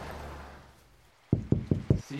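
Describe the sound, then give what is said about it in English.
Four firm, evenly spaced, loud knocks on a door ring out after a brief hush, with faint low murmuring at the start. “…, open up. Just a second. Look, I need to call you back. Someone's at the door.”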